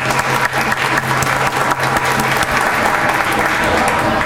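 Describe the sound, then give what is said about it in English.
An audience at an event at Kennesaw State University claps steadily for several seconds, a dense, continuous patter of applause that stays loud and even throughout, with a faint low hum underneath. “But he's been great and supportive of uh, our efforts to bring the year of Peru to Kennesaw, and I want to give him a hand of applause.”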